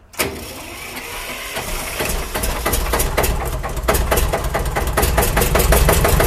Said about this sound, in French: là on entend bien la soupape en train de taper, et c'est vraiment ce qui donne la patate au véhicule ça reste un véhicule assez lourd, mais euh, il faut quand même un certain degré de puissance.